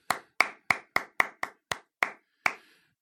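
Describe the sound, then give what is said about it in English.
A single person claps for a contest winner, about nine times at a steady quick pace, slowing slightly toward the end. The claps are sharp and clear, with no other voices or applause around them. “I love it when I'm the only one clapping.”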